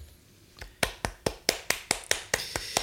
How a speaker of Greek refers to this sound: Οπότε ένα τεράστιο χειροκρότημα για τους Patreons.